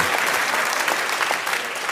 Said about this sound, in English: now, I got a little question for y'all. How many clap if you are on a flat screen television? All right, yeah.